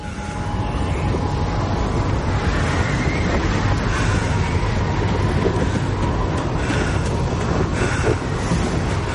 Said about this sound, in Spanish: La fuerte ventisca sopla lateralmente sobre él.